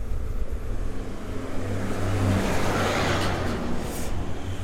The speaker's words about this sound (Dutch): Nou, ja, ze komen echt, ze rijden hard voorbij hier, jongens.